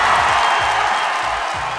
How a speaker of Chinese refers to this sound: 此处有掌声欢呼声，谢谢。